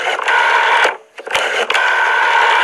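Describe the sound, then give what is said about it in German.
A loud telephone rings in Dumbledore's office in a continuous metallic trill, breaks off briefly, then rings on again without talk over it. It is a heavy, one-kilo 1980s mobile phone. “In Dumbledores Büro klingelte es.”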